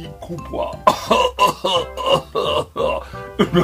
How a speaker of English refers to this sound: Unakumbuka hiyo advert? He would cough mpaka mlango inakuwa blown away.